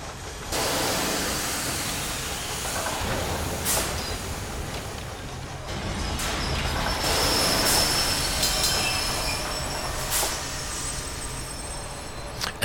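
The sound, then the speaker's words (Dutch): Continuous mechanical rumble of roller coaster lift machinery in the boarding station, with rolling, turning wheels, metallic squeals and hissing bursts of steam. Loud, with no voices. “Dan hoor je hier allerlei machines. Je hoort stoom, je hoort nou ja, wielen draaien.”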